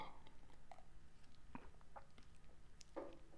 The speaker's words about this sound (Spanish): Esa es una bronca que desde antes de pasar otro ratito de historia, déjenle doy un traguito.